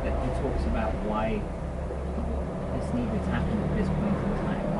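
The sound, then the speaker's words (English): Steady road traffic rumbles continuously in the background, a dense low drone of passing vehicles, with indistinct voices faintly audible over it. “There's a lot of traffic.”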